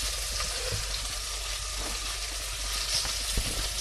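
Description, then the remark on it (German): Bell peppers sizzle steadily as they are fried in a hot frying pan and stirred now and then, a continuous crackling hiss with small pops and an occasional clink of stirring, no voices. “hört die Paprika schön brutscheln.”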